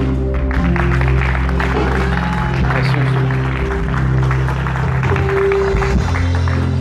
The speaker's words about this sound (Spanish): y le das un aplauso?